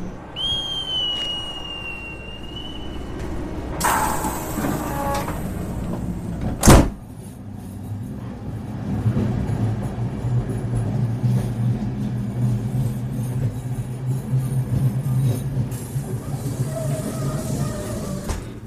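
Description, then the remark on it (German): A whistle-like beep, then a hiss and a sharp thud as the doors of a double-decker sleeper train shut, followed by a steady low rumble building as the train pulls away, with a brief high tone near the end. “Bitte steigen Sie ein. Vorsicht an den Türen und bei der Abfahrt des Fluges.”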